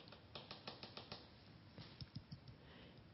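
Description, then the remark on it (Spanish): A pen taps lightly and repeatedly on a hard surface, a quick irregular run of soft clicks, fairly quiet, with no one talking. “Eh, yo no soy de hacer esto, en ese sentido no, pero sí, como les comentaba, lo puedo hacer con las uñas o de pronto agarro y con un lápiz o un bolígrafo”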